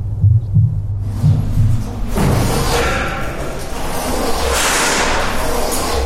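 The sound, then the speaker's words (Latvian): Deep, steady heartbeat thumps from the sound installation at the Salaspils memorial in Latvia pulse for the first couple of seconds. Then a loud, continuous wash of rumbling, hissing renovation noise from the memorial's restoration rises and buries them for the rest. “Sirdspūkstu ritmu Salaspils memoriālā pašlaik pārmāca remonta trokšņi.”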